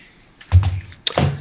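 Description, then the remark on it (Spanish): Two short bursts of clacky computer keyboard keys, a brief cluster of taps followed by a second, slightly louder flurry, with no one talking. “Ah, ya no vieron mi teclado. Es esta mierda, güey chequen con lo que yo tengo que estar trabajando el día.”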